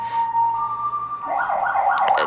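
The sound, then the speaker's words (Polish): An ambulance siren wails steadily, then shifts into a rapid warbling pattern, sounding moderately loud as it passes by outside with no talking over it. “tak jak ta karetka pogotowia, która już drugi raz przerywa dzisiejszą audycję.”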